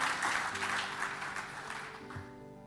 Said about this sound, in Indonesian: Tepuk tangan lagi bagi Tuhan Yesus.